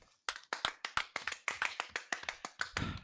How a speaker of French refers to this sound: On applaudit.